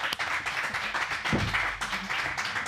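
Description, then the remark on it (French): A crowd claps steadily, a dense wash of many overlapping hand claps with no individual beats standing out, holding a fairly even loudness throughout with a brief low rumble partway through. “Encore plus d'applaudissements, s'il vous plaît.”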